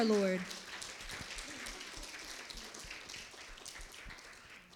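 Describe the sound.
A crowd breaks into applause, a dense wash of many hands clapping that holds steady for several seconds, following a brief bit of voice at the very start.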